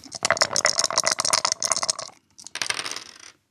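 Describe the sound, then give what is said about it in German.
Three dice are rolled to pick which question to answer. They clatter and tumble across a hard surface in a rapid burst of sharp clicks, a brief pause, then a second shorter rattle settling down. Fairly loud, with no voices. “Wir haben drei Würfel, Maya würfelt”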